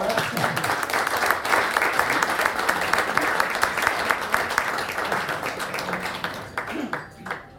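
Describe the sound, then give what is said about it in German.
A crowd applauds steadily, many hands clapping in a dense, even patter that holds strong before thinning out into a few scattered claps at the end. “Ja, genau, erstmal Applaus für”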